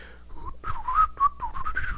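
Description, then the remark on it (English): Someone whistles a short melodic tune, a character's theme music, a quick run of several notes rising and falling in pitch, with no talking over it. “yep, that little whistle thing.”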